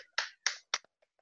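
Three sharp, bright hand claps made into a microphone at a steady, slightly quick pace, followed by a couple of much fainter taps. No voices are heard.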